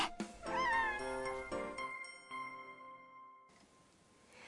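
A single clear cat meow rises and falls in a cat café, followed by a sustained ringing tone that slowly fades. Soft background noise returns near the end, and no one speaks.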